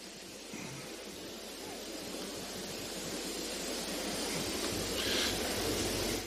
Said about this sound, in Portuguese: Você acabou de ouvir um fenômeno da natureza. Esse som que nós ouvimos é um som de um besouro voando.